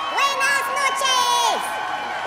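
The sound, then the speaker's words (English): A concert crowd cheers and whoops loudly and steadily, many voices blending into a sustained roar with high, rising and falling shouts riding over it. “Wow, what an amazing concert!”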